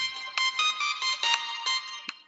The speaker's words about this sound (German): Das ist Telefon.